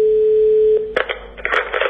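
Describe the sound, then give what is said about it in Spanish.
A steady telephone line tone hums for about a second, then cuts off into a burst of clicks and rustling clatter, like a handset being handled or keys pressed, in a call to the 016 gender-violence helpline. “Para que la violencia de género nunca más deje esta señal, la sociedad tiene esta otra.”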